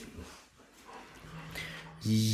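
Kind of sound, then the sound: animal, dog whimpering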